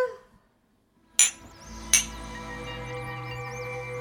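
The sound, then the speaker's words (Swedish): Two bright glass clinks ring out about a second apart in a New Year's toast for 2020, each with a short shimmering ring, fairly loud, followed by a steady low hum in the background. “Gott nytt år allihopa! Gott nytt år! Gott nytt år. Skål!”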